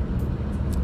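A steady, low rumbling drone of a car engine and road noise, heard from inside a moving vehicle, continuous and fairly loud, with no voices.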